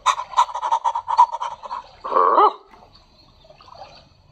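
A dog gives a quick run of short, gurgling yaps, then one louder drawn-out bark with a wavering pitch, followed by near silence. No one speaks.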